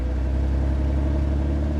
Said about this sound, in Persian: یادم افتاد که تو پارکینگ خونه ماشین دارم یه دیویستیش سفید خسته البته فکر نمی کردم روشن بشه بعد این همه مدت استارت هم زدم روشن نشد بار دوم استارت زدم روشن شد باورم نمیشد